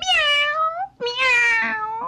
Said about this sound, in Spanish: Misnito se hizo a un lado y dijo miau con lo que quería decir. Don Perro, usted perdone. Don Perro, perdone usted.